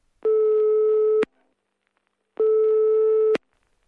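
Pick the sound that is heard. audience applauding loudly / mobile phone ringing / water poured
mobile phone ringing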